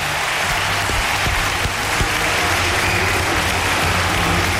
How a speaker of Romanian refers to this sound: Da, da, merită aplauze